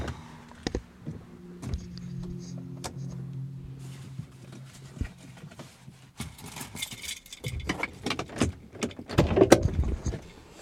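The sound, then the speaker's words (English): Handled sounds inside a car: a low engine-like hum fades, then clicks, rustling and a car door opening, shuffling and a solid thump as a person gets out of the car. No one speaks. “I'm going to get out of the car.”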